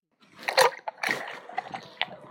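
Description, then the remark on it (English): Milk sloshes and splatters as it's mixed in a pot into a slushy mixture while making Chinese food, with irregular wet swishes and a few sharper clinks, moderately loud, no voices. “I just mix them with the with, with the pot and then mix them together to form this very slushy milk.”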